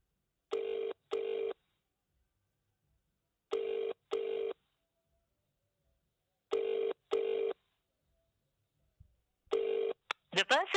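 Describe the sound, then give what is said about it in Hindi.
A telephone ringback tone, a steady double ring repeating four times with pauses between, clear and never answered. A short warbling electronic burst cuts in right at the end. “आप जिस व्यक्ति को कॉल कर रहे हैं वह अभी कॉल नहीं ले पा रहे हैं कृपया कुछ समय बाद कॉल करें क्यों क्यों क्यों क्यों ऐसा भी क्या काम है कि आप किसी का फोन नहीं पिक कर सकते”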